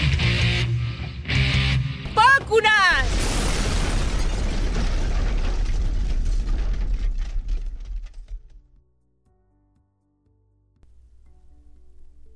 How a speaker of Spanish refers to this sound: ¡Bum, bum, bum, catapum, flash, boom!